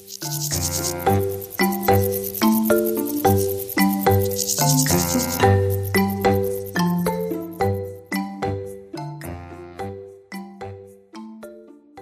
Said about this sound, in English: The sound of grasshoppers and crickets, it to me is the sound of a healthy garden and a, and a nice environment to be in.